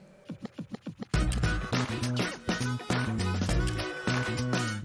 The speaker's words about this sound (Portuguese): Roda a vinheta!